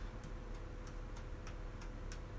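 Quiet, evenly spaced taps on a mini cajon, struck as softly as possible while practicing a fine beat, about eight light strikes in a steady, ticking rhythm over a soft background hiss, with no voices.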